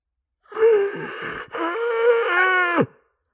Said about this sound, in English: that is the sound of that is my pained scream because I now have to think about anti-vaxxers.